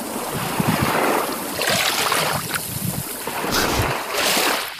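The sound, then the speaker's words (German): Waves wash steadily onto a beach of bright yellow sand and very clear water, where a boat has just moored, in broad rushing surges, with a constant breezy hiss and faint low knocks like a boat hull; no one speaks. “So, wir haben hier gerade mit dem Boot an einem traumhaft schönen Strand angelegt.”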